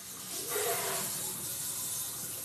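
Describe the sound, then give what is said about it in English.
A kitchen sink sprayer, used by a man washing dishes, runs steadily, giving a continuous broad hiss of spraying water that fills the whole stretch at moderate loudness, with no talking over it. “I really thought I was okay with the dishes being done while I do this. But I forgot. My husband uses the sprayer.”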